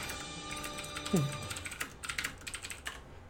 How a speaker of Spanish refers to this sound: Gracias, se escucha macizo tu pinche teclado.